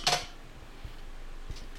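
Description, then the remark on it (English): A single short, bright phone notification chime sounds at the start, then fades into quiet with a couple of soft low thumps and no talking. “That was my phone.”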